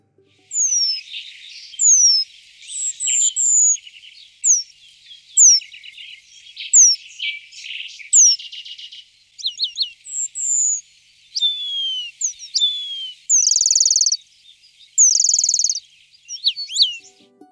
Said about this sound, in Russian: Ремез